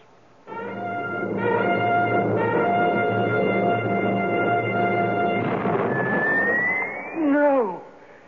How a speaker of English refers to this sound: He's been shot up through the tent. What happened? I don't know. I I guess I must have put a double load in the cannon by mistake.